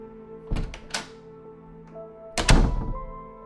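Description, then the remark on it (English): A door is handled with a couple of quick knocks and rattles, then shuts with a solid thud, its low rumble lingering briefly. “you can show yourself out, Lucinda. Alex goes to the door.”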